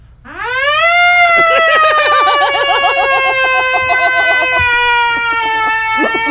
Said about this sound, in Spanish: ¿Puedo, sonar la sirena de, eh, de Toxic Alert? Toxic Alert.